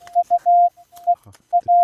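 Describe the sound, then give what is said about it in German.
A steady, loud Morse code tone keys on and off in a pattern of short dots and longer dashes, with brief crackles and clicks in the gaps between beeps. “Äh, äh, Mal mit dem Morse, ich ja, ja auch sowas.”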